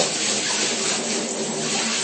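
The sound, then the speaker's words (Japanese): Hot water pours steadily into a bathtub, a constant, full rushing hiss that stays even throughout, with no voices. “確かに洗剤の泡だらけの水がなかなか、そこに、そこから消えてくれなくて、で、そそいつをちょっとお湯を出すのをお休みにして、やり過ごしちゃって、全部出ていったのを確認してからもう一回やります”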